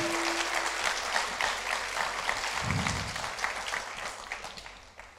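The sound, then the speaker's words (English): A crowd claps steadily for several seconds, a dense wash of many hands that holds loud and slowly tapers toward the end, with a brief low murmur partway through. “Somebody clap your hands like that's powerful.”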